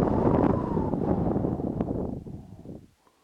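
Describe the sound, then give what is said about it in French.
A low, steady murmuring wind rushes for a few seconds, broad and breathy, then gradually fades away into near silence at the end. “Et ce vent qui reprend, qui murmure Allez-vous-en Allez-vous-en”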